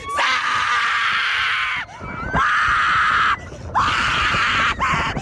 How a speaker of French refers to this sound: Il y a un double cri et des petits cris plus aigus. Je sais pas, c'est. Ce sont des gens qui testent un roller coaster, des montagnes russes.